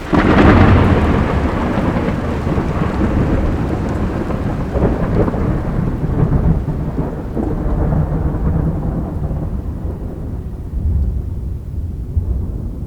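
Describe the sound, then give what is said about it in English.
Light rain hisses steadily while a loud, deep rumble of thunder rolls continuously, strongest at the start and slowly fading into a softer, darker wash of rain, in the countryside in the middle of the night. “yet here I was, in the middle of the night, out in the boonies, alone, in a light rain, chasing ghosts.”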